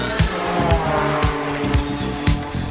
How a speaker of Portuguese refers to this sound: E dessa vez acelerando essa máquina dos sonhos, a BMW HP 4 Race.